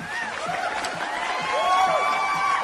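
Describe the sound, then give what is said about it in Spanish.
A crowd applauding and cheering after a song, a steady wash of clapping with rising and falling whistles over it, fairly loud and continuous for a few seconds, with no talking. “Aplausos, aplausos.”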